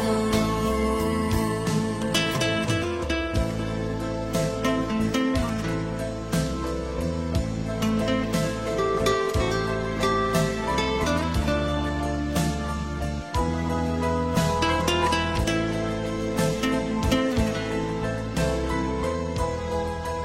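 An old-fashioned Vietnamese song plays steadily and loud throughout, with sustained melodic tones and rhythmic accompaniment filling the whole stretch, no talking over it.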